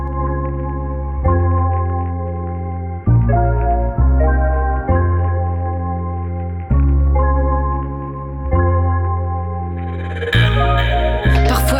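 Instrumental intro of a rap track played on Radio Phoenix: warm, echoing keyboard chords over deep bass shift in a steady, rolling rhythm, with a brighter, busier burst entering near the end. No vocals yet.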